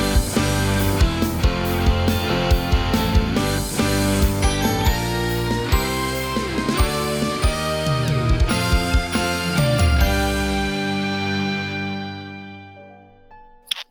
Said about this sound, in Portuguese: e nesse clima aqui já ouvindo, já ouvindo Badalar, já ouvindo Sinos de Natal vindo até nós